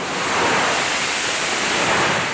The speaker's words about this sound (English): A U.S. Navy fighter jet takes off from an aircraft carrier the USS Dwight D. Eisenhower for another round of strikes on the Iranian backed Houthis.